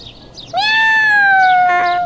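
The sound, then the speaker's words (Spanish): A single long, drawn-out cat meow, loud, holding a steady pitch that slowly falls toward the end, with no one talking. “Bueno, pues ser un gatito listo como tú.”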